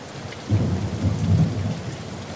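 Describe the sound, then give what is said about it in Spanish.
A low rumble of thunder rolls through under steady, heavy rain at night at a campsite near a river, the deep roar swelling for about a second and a half before easing back into the constant patter of falling water. “toda la noche lloviendo”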